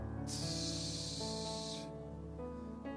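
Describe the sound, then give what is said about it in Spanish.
A voice imitates the sharp hiss of air escaping a punctured ball: one steady, loud hiss lasting about a second and a half, over a faint steady tonal background. “Y solo escuchábamos así”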